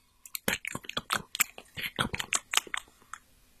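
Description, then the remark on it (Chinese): A boy sitting on a chair in a square chews chocolate, with wet, crunchy bites and smacking: a steady irregular rhythm of short clicky mouth sounds over several seconds, no talking. “他在广场的椅子上坐了下来，吃起了巧克力。”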